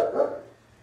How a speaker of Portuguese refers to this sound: Nós estamos na fazenda, aqui a cachorrada late o, o galo canta, o cavalo relincha e esse é o, esse é o barulho do nosso dia a dia aqui.